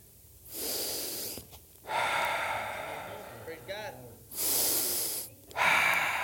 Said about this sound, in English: You're breathing. Amen. You're breathing.